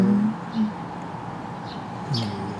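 Open outdoor ambience of a riverside park: a steady low wash of traffic and air, with a few faint bird calls and soft low coos drifting in and out.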